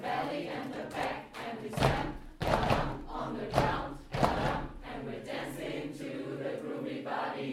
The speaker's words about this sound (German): Eins, eins, eins, und dann müssen auch wir Neuen ran. Ein Rhythmus sein. Klatschen, Schnippen, Stampfen und dann noch der Text dazu.